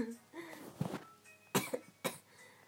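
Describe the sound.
Fairly loud coughing in three harsh bursts spaced about half a second apart near the end, preceded by a brief stretch of voice sounds. The coughing is caused by the smell of insect spray that has filled the room after spraying a bug.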